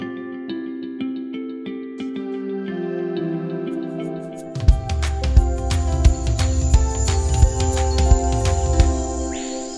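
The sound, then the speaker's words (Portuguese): A short instrumental intro jingle: sustained melodic tones open it, then a punchy beat with deep bass and crisp percussion enters halfway, carrying the tune to the end. No voices. “Roda a vinheta.”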